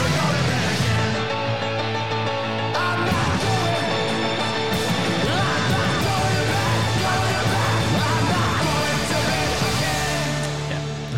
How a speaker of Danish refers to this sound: så selvfølgelig et piano track